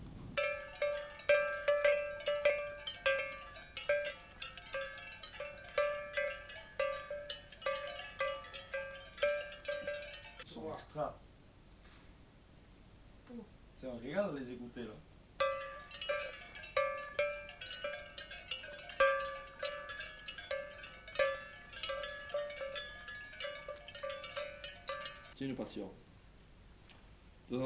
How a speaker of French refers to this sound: tous ceux qui ont beaucoup de cloches euh, dans les troupeaux comme ça, c'est passionné. Parce que t'en as d'autres, ils n'en ont rien à foutre. Hein. Autant ils ont de très belles bêtes qu'ils n'ont rien à foutre des cloches.